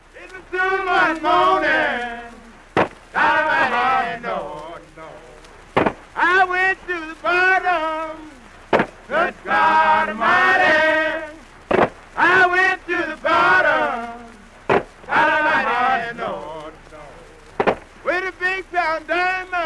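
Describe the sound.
Men's voices sing a slow, drawn-out work song in long wavering phrases, broken by sharp percussive strikes at steady intervals, on an old, slightly hissy recording.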